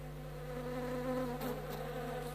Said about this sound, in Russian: Что это? О, маэстро, сколько мух!